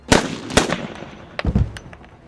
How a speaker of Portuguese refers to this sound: Você erra os dois tiros, não chega nem perto de, de ser raspão. Você tá meio desnorteado por movimento do trem, essas coisas. E o barulho do, dos tiros atraiu mais guardas.